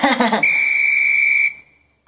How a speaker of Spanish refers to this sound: Ahora, ¿por qué un silbato? Pues ya el tiempo se acabó, güey.